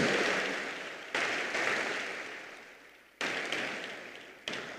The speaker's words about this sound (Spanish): Dios es bueno, Dios es grande, Dios es extraordinario. Aplauda al Creador.